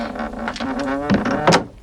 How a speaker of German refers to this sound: Hey, warum machst du die Tür zu? Oh, jetzt ist sie zu und noch nicht einmal ein Türgriff ist dran.